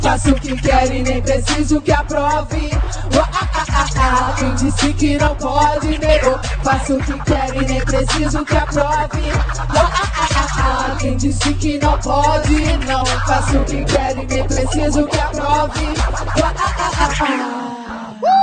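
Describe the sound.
A live hip hop performance on the Tabajara stage: a rapper delivers rhythmic verses and a chanted hook over a loud, steady, bass-heavy beat that runs continuously before cutting off near the end.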